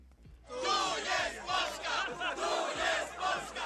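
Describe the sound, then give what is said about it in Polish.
A large crowd chants and shouts together at a street protest in Poland, loud, rhythmic bursts, many voices blending into a dense roar outdoors, with repeated rising and falling phrases. “dużo ostatnio było protestów”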